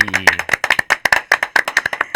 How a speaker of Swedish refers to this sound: Så jag tänkte bara hälsa Inga andra än avbytarbänken. Välkomna! En applåd!